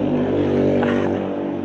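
A car engine hums steadily with a low droning rumble, as passing traffic rolls by fairly loud, with no voices.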